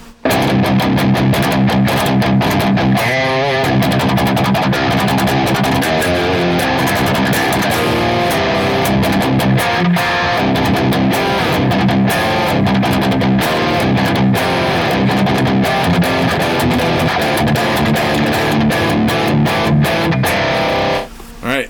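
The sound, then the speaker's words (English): Heavily distorted electric guitar from a Revv G3 clone, through a KT88 power tube section and a 4x12 Celestion Greenback cabinet, recorded as a stereo pair through a Boss IR-200, plays loud, chugging riffs and sustained chords, dense and continuous for about twenty seconds, with brief rhythmic stops between phrases. “All right, so our stereo pair through the Boss IR 200 sounds like this.”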